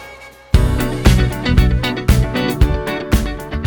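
A pop song plays loudly and up close, kicking in after a brief quiet start with a steady, evenly spaced beat under full, layered instrumentation. No one talks over it.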